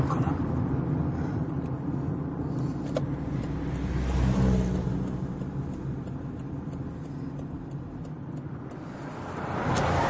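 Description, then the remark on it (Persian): A car's engine hums steadily from inside the vehicle as it drives, a continuous low rumble that swells briefly midway and again near the end. “اجازه بدی من رانندگی میکنم نه خودم رانندگی میکنم لطفا نگه دارید”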